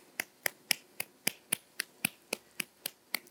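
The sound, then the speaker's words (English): Steady, evenly spaced claps ring out about four times per second, sharp and crisp, a clap of praise to God for the Equippers Flensburg church, sounding like one tight rhythmic beat rather than a scattered crowd, with no talking. “Come on, lift up your hands and just give Him a big clap of praise.”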